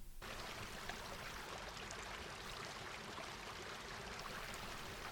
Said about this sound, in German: Hunderte professionell aufgenommene Sounds wie die Dusche der Fluss.